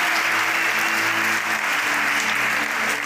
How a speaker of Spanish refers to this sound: Si usted cree que Dios va a hablar en esta noche, denle un aplauso al Señor.